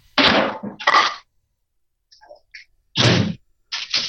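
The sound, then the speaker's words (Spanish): A phone drops and clatters with loud thuds: two heavy knocks, a near-silent pause with faint rustling, then two more bangs. No one speaks. “algo, algo ocurrió ahí porque escuchamos que quizás se le cayó el teléfono o algo parecido, porque justo cuando le pasábamos la, palabra, escuchamos ahí algo, algo extraño.”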